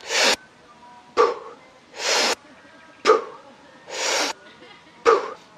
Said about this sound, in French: Et après, tu fais une passive exhale. Ça fait.